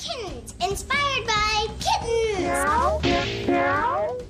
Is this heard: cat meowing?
yes